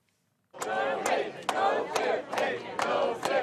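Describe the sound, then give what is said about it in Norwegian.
Hundreds of Google employees protest outside Google's headquarters in California, chanting slogans against President Trump's travel ban in unison. The loud rhythmic shouts repeat roughly every half second with a dense roar of many voices between them. “Her utenfor Googles hovedkvarter i California, der hundrevis av ansatte ropte slagord mot president Trump.”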